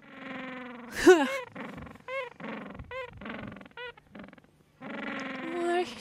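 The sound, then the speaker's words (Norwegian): A voice imitates a penguin call: a sharp strained cry, then a rapid series of short rhythmic honks, ending in a longer drawn-out braying note. “Nei, det er sånn det høres ut. Jeg er en pingvin.”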